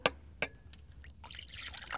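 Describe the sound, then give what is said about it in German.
Tea pours into a cup: two bright, ringing clinks of china come first, then a steady, splashy trickle of liquid fills the cup. No one speaks. “Der Tee.”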